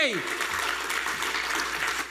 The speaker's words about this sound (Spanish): un aplauso al Señor.